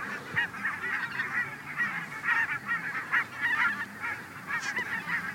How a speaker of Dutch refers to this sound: Nog voordat we één weidevogel zien, ontmoeten we eerst een hele wolk brandganzen, die daar verblijven in een voor hen bedoeld rustgebied. Je ziet ze hier nu overtrekken, eh, dat, dat, dat gaat in duizenden.